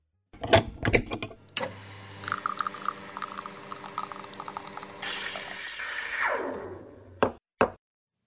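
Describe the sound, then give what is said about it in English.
An espresso machine brewing: a few sharp knocks, a steady buzzing pump hum, then a rising gurgling hiss of liquid, ending with two more clacks. No one speaks. “And now I think it's time I warm up my espresso machine and brew up another leadership espresso shot.”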